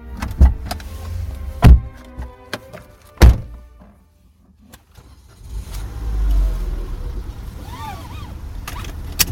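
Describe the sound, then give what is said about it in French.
Three heavy car door thunks, a brief hush, then an engine rumbles to life and keeps running steadily as the car pulls away. “En voiture alors, et roule tranquille, hein”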